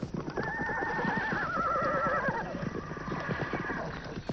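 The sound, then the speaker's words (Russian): A horse whinnies loudly with a long, quavering neigh while steady hoofbeats clop underneath, continuing on their own after the call fades. “И в этом выгодное, так сказать, положение в том, что у нас были кони.”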